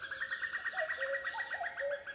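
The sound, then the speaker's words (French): A female common cuckoo gives her rapid bubbling call, a steady run of quick, chuckling notes close by, with another bird's softer, lower calls weaving underneath. “Il a senti la menace tout près, une femelle coucou indique sa présence.”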